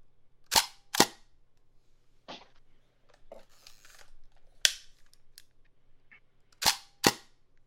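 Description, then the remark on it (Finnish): Crisp mechanical shutter clicks of a Hasselblad camera, mostly in close pairs, with softer ratcheting sounds of its winding mechanism between them, with no talking. “Tämä on Hasselblad.”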